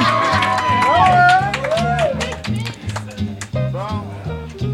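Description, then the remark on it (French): A crowd at an auction claps and cheers for the person on stage, with rising whoops and scattered clapping over a steady, thumping low beat that continues throughout. “On applaudit.”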